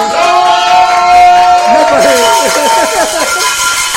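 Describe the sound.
A loud audience ovation of many overlapping cheering, whooping voices, with a steady held tone at first. It swells into a dense wash of crowd excitement that continues throughout.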